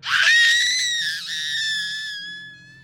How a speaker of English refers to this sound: Eventually, she did start yelling for help, which everyone up and down the shore heard.